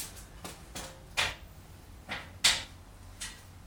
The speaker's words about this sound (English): whoa the hammer was still on the ladder when I tried moving the ladder. Got a bunch of rattling sounds.